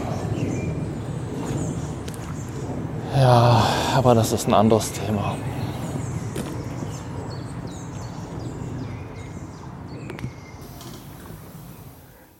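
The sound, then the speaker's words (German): Outdoor nature ambience in a bird aviary shortly after rain and a thunderstorm, with scattered small bird chirps and calls over a steady background wash and an airplane audible; a person speaks briefly early on, and the birds continue faintly throughout. “nachdem ich euch noch ein bisschen mit diesen Naturgeräuschen allein lasse.”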